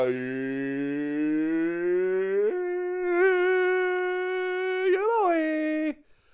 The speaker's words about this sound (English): I had to listen to a goddamn commercial about Cookie Jam just to get my fucking favorite fart noise.